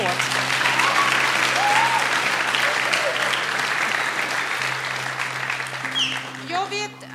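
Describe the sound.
An audience applauds steadily, a dense wash of clapping that holds for several seconds before thinning out, with a low steady hum beneath and a few brief voices near the end.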